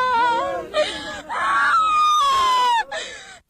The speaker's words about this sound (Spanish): Bueno, cuando las niñas gritaban era porque a la mujer la estaban ah. jalando y llevando hacia la patrulla los agentes tanto uniformados como los encubiertos.